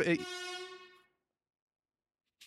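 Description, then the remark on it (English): An ambulance going by sounds its siren as one loud, steady, brassy tone for about a second, then cuts off abruptly, leaving near silence before a brief soft rustle. “oh my god, this fucking ambulance is going by every ten minutes.”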